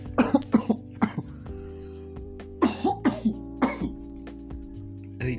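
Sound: coughing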